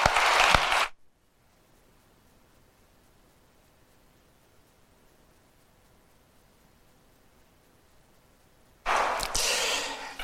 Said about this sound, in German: Also ich bin jetzt gespannt, was gleich kommt, genauso wie ihr, und lade euch jetzt herzlich ein, doch nach vorne zu kommen. Begrüßt Sie doch mit einem herzlichen Applaus.